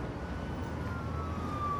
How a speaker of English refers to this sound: Huh. Sounds like a lot of cop cars. Why do I feel like they're heading this way?